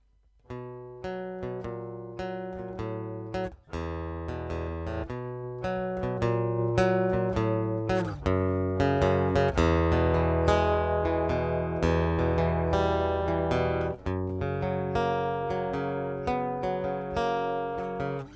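A recorded song plays steadily at full volume, with layered tonal instruments and crisp, rhythmic note attacks running throughout, and no one talking over it.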